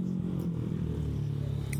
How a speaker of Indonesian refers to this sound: perasaan dari tadi banyak motor hmm. suaranya gerang gerung gerang gerung baik iya udah gitu motornya bukan motor balap motor biasa